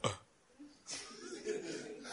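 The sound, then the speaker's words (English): A man's voice imitates a belch, starting with a short breathy burst and then a drawn-out, rough, croaking sound, fairly loud. “So the thing detonated inside Superman's stomach. Boom! Then he belched.”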